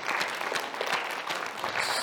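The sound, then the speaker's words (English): A crowd claps steadily to celebrate money raised to help pay for legal costs, many hands producing a dense, even patter of applause that holds at a fairly constant loudness throughout, with no voices rising above it. “So we, we are going to, yeah, can you clap for that?”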